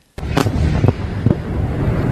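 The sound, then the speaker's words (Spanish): Several rocket launches and explosions in the early morning, rockets fired from Gaza and southern Lebanon toward Israel: a few sharp booms over a constant roaring rumble, heavy, with no voices. “Mientras tanto, en las últimas horas se han producido lanzamientos de cohetes desde Gaza y también desde posiciones en el sur del Líbano contra suelo israelí.”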